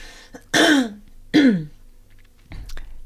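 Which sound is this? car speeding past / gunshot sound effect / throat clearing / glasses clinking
throat clearing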